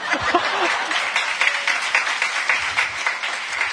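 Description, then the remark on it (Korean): A steady burst of audience applause welcoming a presenter, many hands clapping densely and continuously for a few seconds, with faint voices mixed in underneath. “자, 박수로 맞아볼까요?”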